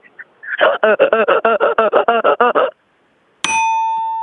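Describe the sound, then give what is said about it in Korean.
A woman's voice mimics the squeaky sound of wiping a glass window: about a dozen rapid, evenly spaced squeaks, followed after a short pause by a bright bell ding ringing out. “자, 유리창 닦는 네. 소리 여성분이신데 들어보겠습니다.”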